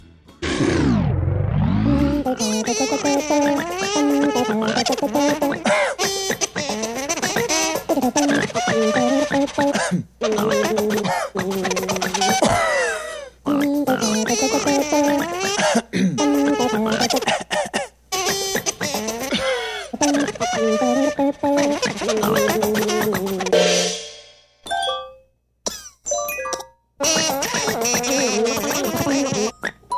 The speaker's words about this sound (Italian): è una pubblicità che lui ha fatto per uno sciroppo per la tosse.